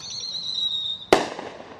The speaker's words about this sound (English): You can hear the fireworks going off. These are illegal fireworks in the city of Pasadena. In fact, all fireworks are illegal here.